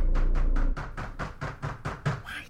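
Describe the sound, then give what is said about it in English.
A man knocks frantically on a shed door: about ten quick, hard raps in a fast, steady rhythm, loud, with no voices. “He continued knocking frantically”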